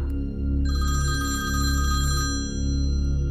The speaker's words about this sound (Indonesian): Sekitar jam 2 dini hari, telpon bunyi.